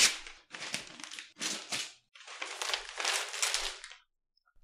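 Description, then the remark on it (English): Double-sided wrapping paper crinkles and crackles in several quick bursts as a gift is torn open, with brief pauses between handfuls before the rustling trails off. “also beautifully wrapped.”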